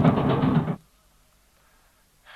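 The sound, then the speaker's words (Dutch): A loud engine chugs roughly for under a second, then abruptly cuts out because its air intake has been blocked, leaving near silence before a faint noise returns at the very end. “We hebben de luchtinlaat geblokkeerd. En dan geeft de beste motor in de brui aan.”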